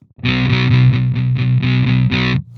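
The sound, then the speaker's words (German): A heavily distorted electric guitar, played through a heavy metal distortion pedal on a 'Hell Metal' setting, plays a chugging riff of short, repeated palm-muted chords, thick and saturated with buzzy high harmonics, loud and steady, with no voices. “Oh, das klingt wie ein Metal Muff oder irgendwie sowas.”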